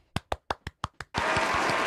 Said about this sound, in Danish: Du, du klapper allerede dine små hænder. Fordi, ja. Du kan godt få en applaus, hvis du vil have det.